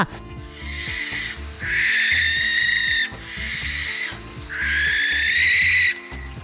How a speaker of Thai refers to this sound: ประกอบกับลักษณะของนกแสกเองนั้นก็ชอบอาศัยอยู่ในบ้านร้างนะคะ ก็ดูเหมือนเป็นพูดผีที่ซ่อนตัวอยู่ มีเสียงร้องที่ดูน่ากลัว